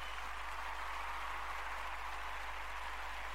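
A steady wash of clapping from a crowd welcoming guest Maria De Filippi onto a show, dense and even throughout, with no individual claps standing out and no one speaking over it.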